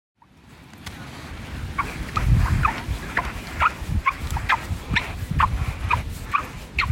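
Footsteps squeak on sand, a dozen or so short, pitched chirps at an uneven walking pace, about two per second, over a steady low rumble with no talking.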